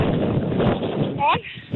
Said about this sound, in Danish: Du har travlt på arbejde, kan vi høre, det blæser helt, der hvor du er. Skyld, jeg cykler. Nå, Nå du cykler.